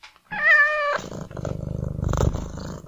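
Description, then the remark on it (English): A cat gives a single loud, drawn-out meow, then settles into a steady, rumbling purr that continues until the end. No one speaks. “I've just coughed up a hairball on your bed cat is.”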